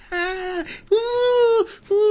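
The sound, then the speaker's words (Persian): A voice imitates women's moaning with drawn-out, wavering "ooh" sounds, three in a row separated by short pauses, the last one cut off, mimicking women at a neighbouring table in a bar. The voice is fairly loud, with no other sounds. “بعد یه دفعه همینجوری که اینا او میکنن این صدای او او یه دفعه باعث میشه”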